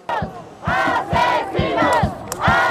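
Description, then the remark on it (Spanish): A crowd of caravan migrants protesting in front of the National Migration Institute offices in Mexico City shouts a chant at the migration authorities over a deadly trailer accident, in unison, loud rhythmic bursts of voices repeating at a steady beat roughly twice a second, with no single speaker standing out. “Así llamaron los inmigrantes de la caravana a las autoridades migratorias durante una protesta frente a sus oficinas generales.”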